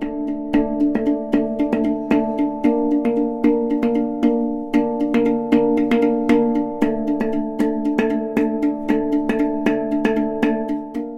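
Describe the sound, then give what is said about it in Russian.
A hank drum (steel tongue drum) plays a steady melodic pattern, each struck note ringing out with long, shimmering sustain that overlaps the next. It sounds clear, with no voices. “если говорить именно про лазеры и чувства, я бы сказал, что это Ханк.”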